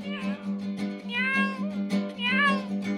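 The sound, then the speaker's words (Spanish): A cat meows twice, clear, with drawn-out rising-and-falling cries about a second apart over a steady low humming background. “Ándale gato”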